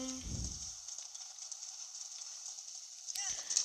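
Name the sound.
horse hooves clip-clopping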